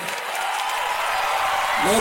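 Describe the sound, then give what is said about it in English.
A crowd claps steadily for about two seconds, a dense, even wash of applause that swells slightly near the end, where a voice starts to come through. “Go on, give him a clap offering. He deserves our praise.”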